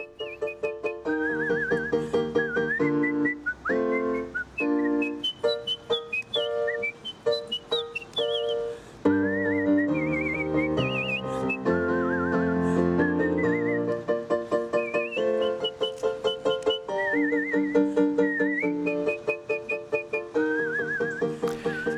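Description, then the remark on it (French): A person whistles a fast, ornate operatic melody full of high leaps and rapid runs, clear and prominent over a steady instrumental accompaniment, with no talking. “celui qui sifflote ou celle qui sifflote, je me souviens plus, euh, là, la reine de la nuit”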